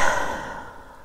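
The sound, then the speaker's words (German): A single deep, airy exhale as a woman takes a deep breath, breathy and sigh-like, starting strongest and gradually fading away over about a second, with no talking. “Sie atmet tief durch”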